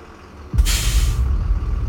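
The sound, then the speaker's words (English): A bus idles on Fairyhouse Road in County Meath on a cold October evening in 1971 with a deep, steady engine rumble, then a loud burst of air brake hiss rushes out for nearly a second before fading back under the engine drone. “a young woman stepped off a bus on Fairyhouse Road in County Meath.”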